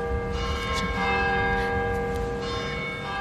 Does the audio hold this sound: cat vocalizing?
no